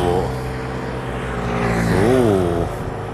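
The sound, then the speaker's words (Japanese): Two motorcycles roar past on a street running a red light, their engines a loud, steady drone that swells and dips in pitch as they go by, with no one talking. “お赤信号のバイクが2台通過しましたね”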